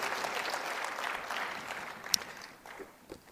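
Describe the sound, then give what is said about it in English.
An audience applauds to thank the people who put the program together, a dense steady patter of many hands clapping with one sharp louder clap partway through, then the clapping thins and fades out near the end. “And I'd like for everyone to give them a, a, hand and applause and thank them for the excellent job that they've done in putting this program together.”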